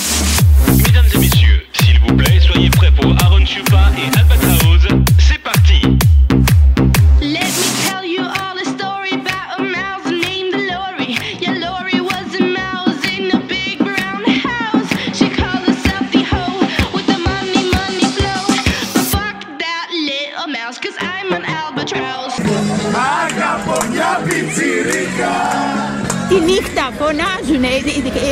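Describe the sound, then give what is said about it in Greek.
Loud party music with a heavy, steady beat pounds as a crowd parties with drinks at night in Agios Georgios Square in Kypseli during Easter. The crowd's voices blend into the din, and the DJ's track shifts partway through. “Στην πλατεία Αγίου Γεωργίου της Κυψέλης για ακόμα μια νύχτα πλήθος κόσμου ξεφάντωσε με ποτά και δυνατή μουσική.”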